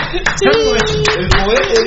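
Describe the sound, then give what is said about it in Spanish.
A handful of sharp, evenly spaced hand claps, about four per second, applauding during a live stream, sound over a steady, droning voice-like tone. “Aplausos.”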